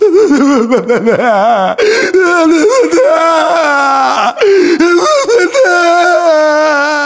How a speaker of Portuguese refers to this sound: À hora do almoço, o famoso detetive, sentindo-se velho e fracassado, sofreu uma crise chorando na frente de todos.